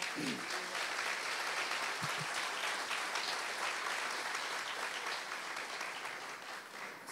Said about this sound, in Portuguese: Você pode aplaudir ao Senhor?